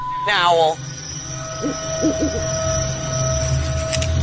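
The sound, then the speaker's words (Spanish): An owl gives a single short, wavering call near the start, in a forest at night. Afterward a steady electronic hum continues, with a few faint, low voice-like murmurs. “Es un búho.”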